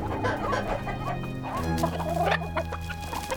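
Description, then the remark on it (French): Several chickens cluck and squawk in short, overlapping bursts, a busy, irregular chorus of mid-pitched calls over a steady low hum, with no one speaking. “Certains les utilisent pour élever des volailles ou des chiens, et pour entreposer les invendus du marché aux légumes tout proche.”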